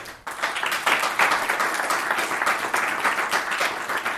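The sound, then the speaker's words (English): An audience at a bookshop event bursts into steady applause welcoming a speaker, many hands clapping together in a dense, sustained wash of sound that holds at an even level for several seconds. “Um, so please give a warm welcome”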